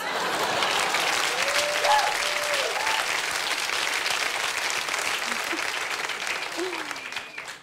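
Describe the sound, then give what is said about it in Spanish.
Steady audience applause, a dense, even wash of clapping that holds for several seconds before tapering off at the end, with faint scattered voices and whoops mixed in. “O sea, si quieren empezar el aplauso, está bien, no sean culeros.”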